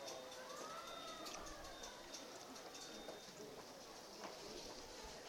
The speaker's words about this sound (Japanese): 救急車が今1号路の方上がっていましたね、うん、やっぱりあの駐車場のところに、えー、溜まってるんだと思いますけれども結構ね上がってったばっかりなんですね